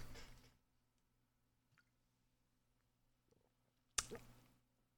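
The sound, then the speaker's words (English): Someone sips fizzy Coke from a plastic bottle: a wet, hissy burst, a quiet pause with faint small clicks, then a sharp squishy slurp near the end. “Uh, on the count of three, we'll go one, two, three, and I'll sip this here Coke Cola.”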